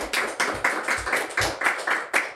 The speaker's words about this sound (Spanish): Coño, gracias. Aplauso para él.